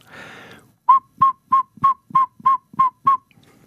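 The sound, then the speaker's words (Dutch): A male Catixalus asterops frog's whistling call: eight short, bright whistled notes repeated at a steady, quick rhythm, loud, following a brief burst of soft hiss. “We horen nu het geluid van de Catixalus.”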